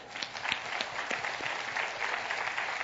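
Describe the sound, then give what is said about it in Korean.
A crowd applauds steadily for volunteers coming forward, a dense wash of many hands clapping at moderate volume for a few seconds, with no voices standing out. “우리 박수 한번 해주십시오.”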